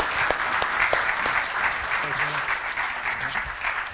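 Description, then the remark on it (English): An audience claps steadily for several seconds for guests who came to talk with them, a dense, even patter of applause that stays strong throughout while a man briefly speaks over it. “Well, I'm going to let you off the off the hook, and uh, guys, let's give them a round of applause for being willing to come talk with us.”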